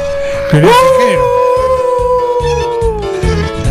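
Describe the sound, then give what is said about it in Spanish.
A long, drawn-out howl swoops upward, then holds a steady wavering pitch for several seconds, loud, over a low rhythmic thumping beat in the background. “Pues se escucha aullar.”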